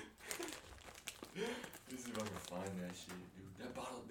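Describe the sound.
A chip bag crinkles and rustles in quick, crisp bursts while people talk over it, the crackling bright and busy throughout.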